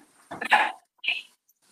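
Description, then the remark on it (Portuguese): A dog named Boni barks twice: a longer, rough first bark followed by a shorter, higher yap a moment later, with quiet in between and no talking. “Agora o Boni resolveu latir, aprendeu a latir, nunca vi. Aí o cara começa a gravar e começa a latir.”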